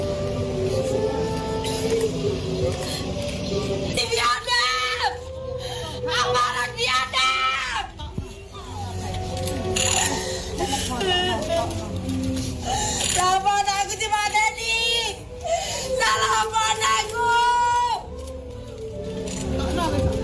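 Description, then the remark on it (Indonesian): A parent of a victim of the Kanjuruhan tragedy screams and wails in anguished grief while remembering the event of 1 October 2022 that took their child's life. The cries are loud and sobbing, rising and breaking in long, strained bursts over a low murmur of other voices. “Saudara itu tadi jerit tangis salah satu orang tua korban tragedi Kanjuruhan ketika mengingat peristiwa setahun silam yang merenggut nyawa anaknya 1 Oktober 2022.”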